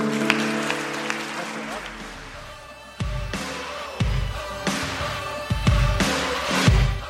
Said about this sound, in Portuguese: Vamos aplaudir a Deus.